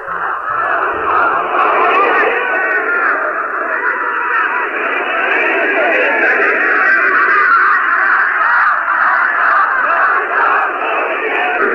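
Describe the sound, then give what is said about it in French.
A large crowd gathered outside a maternity clinic in Tehran, Iran, cheers and shouts at news that the queen has given birth to a son, in a dense, continuous roar that stays loud and steady throughout, with no single voice standing out and occasional higher cries and honk-like tones mixed in. “La foule qui s'était rassemblée à l'annonce de l'arrivée de la reine dans la maternité, foule qui est restée silencieuse pendant trois heures, s'est maintenant euh, déchaînée”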